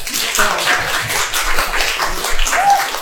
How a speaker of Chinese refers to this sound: 掌声欢迎我的土豆会唠嗑的作者